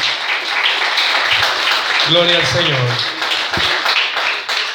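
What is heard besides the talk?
audience applauding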